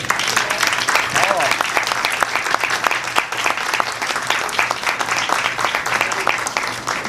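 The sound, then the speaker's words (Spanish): Sustained applause from an audience for a birthday, a dense wash of many hands clapping steadily at a loud, even level for several seconds without letting up. “Bueno, pues muchísimas gracias de verdad por estar aquí, por el aplauso y pues sí, cumpleaños.”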